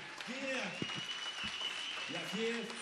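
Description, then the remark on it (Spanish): An audience applauds steadily throughout at a live music show, a dense, continuous clatter of many hands, with a few voices calling out and cheering over the clapping. “Un aplauso, por favor.”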